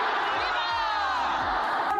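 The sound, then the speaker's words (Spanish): A large crowd shouts independence cheers together, "¡Viva la independencia! ¡Viva!", a loud, sustained wall of many voices that holds steady for a couple of seconds, energetic. “Gritos de independencia. ¡Viva la independencia! ¡Viva!”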